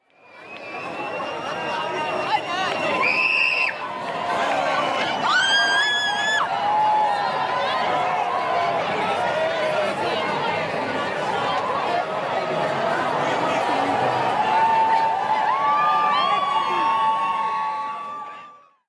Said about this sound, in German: Gut, das äh, klingt nach entweder Chaos oder Freude, nach Fußballplatz, Spielplatz oder äh, doch was ganz anderem. Was ist es denn? Ja, hier wird gefeiert. Also hier wird in den Innenstädten wieder richtig losgelegt, gefeiert